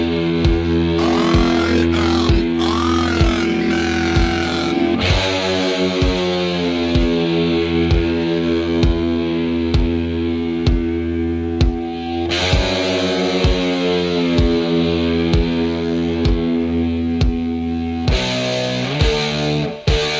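A distorted electric guitar plays a repeating riff of sustained, heavy chords with a steady driving beat underneath, loud and continuous with no talking, shifting to new chords every few seconds.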